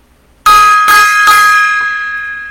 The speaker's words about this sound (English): Gong time.